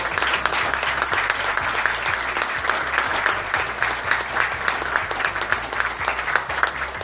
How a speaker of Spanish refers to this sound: agradecer también a la gente que fue parte de la apertura del festival, a la compañía de Agus Cumba, a la cual pido un fuerte aplauso.